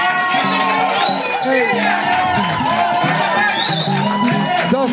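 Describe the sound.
A large audience on Bonaire applauds and cheers loudly and steadily for several seconds after a speaker's remarks, with excited shouts and voices rising out of the continuous crowd noise.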